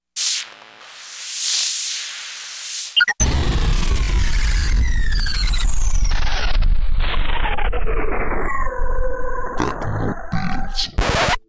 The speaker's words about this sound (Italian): Oh, mi sono dimenticato di mettere la sigla, vai!